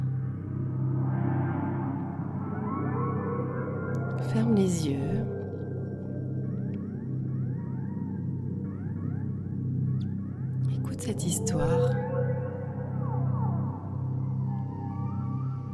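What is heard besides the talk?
background music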